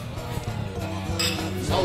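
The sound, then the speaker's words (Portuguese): Glasses of Irish Red Ale beer clink together in a toast, a short bright chime or two standing out over a steady, low background hum. “Vamos brindar?”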